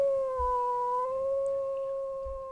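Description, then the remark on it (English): A voice imitates a long, sustained, pained howl from the character Phalion after a stone cracks, holding a steady mournful tone for a few seconds, fairly loud with no other talk over it. “it hits dead on and there's this loud crack as the stone kind of gets a little spiderweb crack in it and Phalion looks at the three of you and lets out kind of a pained howl.”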